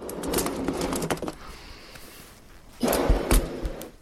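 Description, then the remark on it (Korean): Someone blowing up a balloon: two strong, breathy puffs with rubbery squeaks and flutters, separated by a quieter pause where a softer intake of breath can be heard. “이것의 정체는 바로 풍선이었습니다.”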